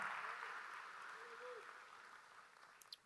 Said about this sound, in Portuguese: Você pode dar um aplauso para esse Deus que nos vê, que nos olha em todo momento. Aleluia!